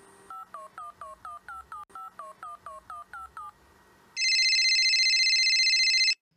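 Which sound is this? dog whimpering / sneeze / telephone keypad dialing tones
telephone keypad dialing tones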